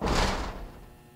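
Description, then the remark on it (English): A large rolling door, big enough to drive a truck through, rumbles as it moves in a space the size of a Greek theater, a loud, broad metallic rush that starts abruptly, then gradually fades over about a second. No voices are heard. “And what I'm afraid of is going beyond that stupid rolling door.”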